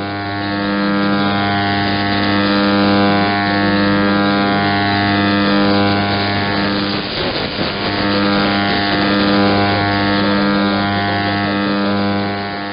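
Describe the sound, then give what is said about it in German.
A steady, loud buzzing hum with many evenly spaced harmonics from a medium-wave jamming transmitter drones on over a radio broadcast. It jams a station from Iran and overlays a station from Italy on the same frequency. A brief burst of noisy static comes around the middle, and no one speaks. “Der auffällige Brummton überlagert dabei sogar den Sender aus Italien auf gleicher Frequenz”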